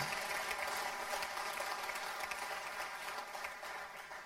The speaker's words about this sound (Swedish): Och eh, vi tackar Gud för att han är trofast. Och Amen, vi kan ge Gud en stor applåd.